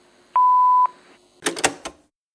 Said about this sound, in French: Après la tonalité, c'est moi qui vous laisse un message.